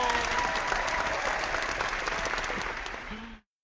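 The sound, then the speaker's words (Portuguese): A crowd applauds with dense, steady clapping that holds at an even level for about three and a half seconds, then cuts off abruptly. No voices are heard. “Então, meta alcançada. Aplausos!”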